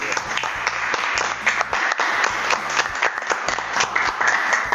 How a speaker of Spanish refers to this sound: Un aplauso para él. Bienvenido.